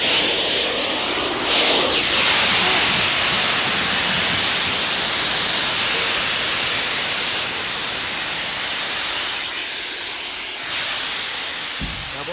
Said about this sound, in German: Hören Sie das Zischen austretender Luft? Zischen, zudrehen! Schieben zu!